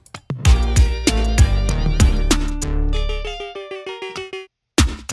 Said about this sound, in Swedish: Ljudet ni hörde där. Det är från någon Oberheim eh, motsvarande eh, klon av eh, OBX Oberheim tror jag.